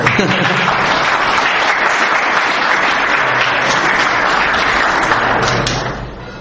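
An audience claps steadily to welcome a speaker at a lecture, a dense, even wash of applause that holds strong for about six seconds, then begins to fade out at the end.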